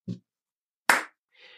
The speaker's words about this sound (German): Und was, also, du bist jetzt, YouTube liegt hinter dir, der Phantasma Slam ist das, für, für das man dich so im Moment kennt in der Zauberszene, dass du das machst und wir feiern dich auch alle dafür. Äh, ein Applaus.